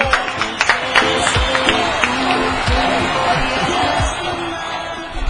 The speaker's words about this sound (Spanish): ¡Aplausos!